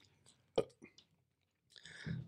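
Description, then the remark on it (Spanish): Someone takes a sip of beer: a few quick wet mouth clicks and a slurp, then a brief pause before a longer breathy swallow and exhale. “Bueno, voy a chingar un trago de pinche.”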